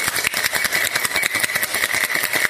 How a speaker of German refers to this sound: Und dann ist es soweit, dann kommt unser Thymian-Wodka. 5cl davon. So, das Ganze mit etwas Eis. Und dann etwa 5 bis 10 Sekunden kräftig shaken.